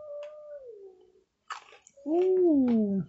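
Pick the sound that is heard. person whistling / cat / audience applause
cat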